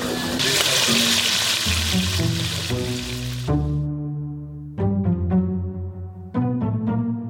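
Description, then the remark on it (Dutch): Loud, steady sizzling of calamari and anchovies frying in a pan fills the first half, then cuts off abruptly, leaving melodic music with plucked-sounding notes that continues underneath throughout. “is nu echt lekker hard aan het bakken.”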